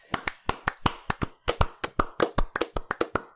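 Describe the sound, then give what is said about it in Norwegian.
A small round of applause for Psychedelica of the Ashen Hawk, named game of the year: a few hands clapping, roughly twenty sharp, crisp claps at a quick, slightly uneven pace over a few seconds, with no talking. “En liten applaus.”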